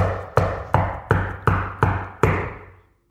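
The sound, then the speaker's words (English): Seven firm knocks on a door land in a steady, even rhythm, each ringing briefly with a hollow resonance; the last knock hits harder and fades out slowly. No voices. “And the door is open to everyone who knocks.”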